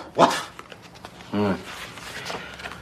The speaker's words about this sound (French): cette fois, dans le film d'Alain Chabat, on trouve des moments où le chien parle furtivement, car il commence à apprendre des mots.